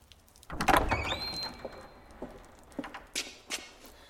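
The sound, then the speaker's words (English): A door is pulled open with a thud and a drawn-out high creak that fades over a second or so, followed by a few soft taps and light footsteps nearby. “Allow me to eradicate the door for your kind person.”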